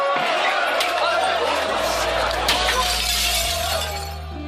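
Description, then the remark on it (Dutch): Glass shatters loudly during a riot in the village of Haren, with riot police charging, a dense spray of tinkling shards with a couple of sharp crashes, over a steady low drone that fades slightly at the end. “Overal liggen glasscherven, er zijn brandjes, de ME voert charges uit en je hoort schreeuwende jongeren in heel het dorp.”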